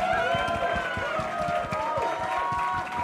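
An audience claps in welcome, a dense, steady patter of many hands lasting throughout, with a wash of crowd voices and whoops riding over the applause.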